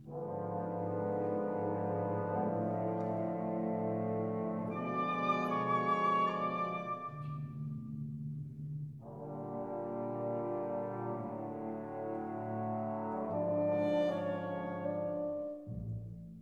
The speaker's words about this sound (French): Dès la première mesure, les violoncelles et contrebasses énoncent un court motif, Ré, Do dièse, Ré, qui va se développer et faire l'unité de l'œuvre, se glissant ici ou là dans la partition, sans cesse transformée.